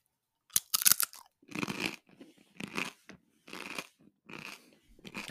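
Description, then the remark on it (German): Loud crunching of crispy Schüttelbrot flatbread: a sharp snap at the start, then several rhythmic bursts of crackly chewing separated by brief pauses, with no talking. “Das ist ja normal Schüttelbrot. Ich höre sie ganz fest knacken.”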